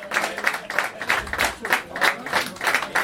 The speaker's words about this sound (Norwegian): Takk for at dere kom. Stor applaus.